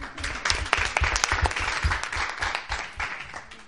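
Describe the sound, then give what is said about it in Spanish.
An audience gives its third round of applause, clapping steadily, a dense patter of many hands that stays fairly loud and even throughout, with no voices rising above it. “Madre mía, habéis arrancado el tercer aplauso, hombre.”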